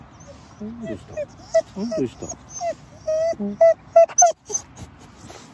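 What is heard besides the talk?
dog whimpering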